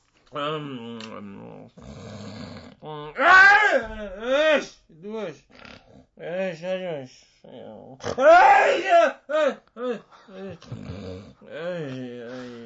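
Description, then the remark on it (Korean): A voice imitates a father's strange snoring, heard at night from the master bedroom, with drawn-out, wavering moans and groans, rising and falling in pitch, in several loud bursts separated by short pauses. “갑자기 화장실에 가고 싶어서 거실로 나왔는데 안방에서 들리는 아빠의 코 고는 소리가 좀 이상합니다.”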